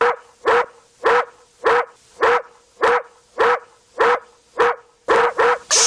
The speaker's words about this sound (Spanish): El perro está ladrando.